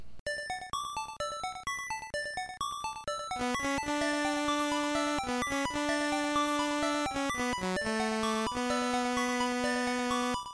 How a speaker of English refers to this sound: Here's how it sounds if you have the first four instruments cello, horn, bell, and harp.